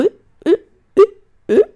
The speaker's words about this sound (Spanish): Y yo con el hipo.